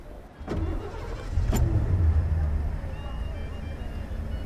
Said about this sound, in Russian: Машина двинулась вперед, к стене. Шофер искал, где бы повернуть.